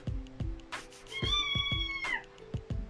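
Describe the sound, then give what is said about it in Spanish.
A single drawn-out kitten meow, clear, rises over a steady low thumping beat that pulses regularly through the whole moment; no one speaks. “También ese gatito que acabas de escuchar también es experto en maullando.”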